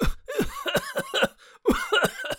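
A voice imitates a father's bout of harsh, continuous coughing from a severe cold, coughing so hard he cannot speak: about seven or eight rapid hacking coughs in two clusters separated by a brief pause, fairly loud and raspy, with no spoken words.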